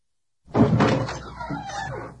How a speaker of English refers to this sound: How dare you slam the door on me! How dare you! Don't ever slam the door on me again!